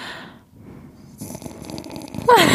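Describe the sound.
A voice imitates the soft, slow breathing of someone sleeping peacefully, showing how the speaker breathes while asleep, with a few gentle airy breaths, ending in a brief louder vocal sound.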